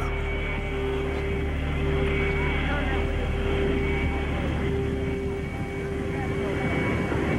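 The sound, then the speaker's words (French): Air Force One, the presidential jet, taxis very slowly along a building to a stop, its engines giving off a steady, loud roar layered with a high, sustained whine that holds without a break from start to finish. “Uh, et le long uh, du bâtiment, très lentement, Air Force One s'immobilise.”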